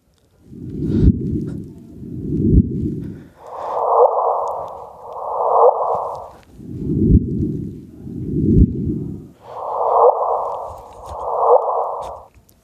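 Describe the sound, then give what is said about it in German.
A sonified gravitational wave signal from one event, played repeatedly in two different frequencies, each whoosh marking three solar masses of gravitational energy lost: eight smooth whooshing swells in pairs, alternating between a deep rumbling tone and a higher hum, each rising and fading evenly, with no voices. “Jeder Wupp drei Sonnenmassen also ich finde es gewaltig, ist gar nicht angemessen diesem Geräusch, aber so ist es und wir werden hier sicherlich noch vieles erleben.”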